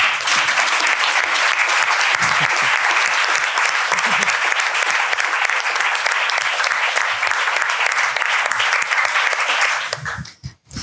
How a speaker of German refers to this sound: Ein Applaus für Philipp Winkler.